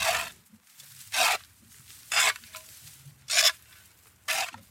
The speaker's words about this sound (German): Er will uns seinen Brunnen zeigen und schaufelt den Betondeckel frei.